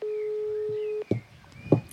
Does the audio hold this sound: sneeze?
no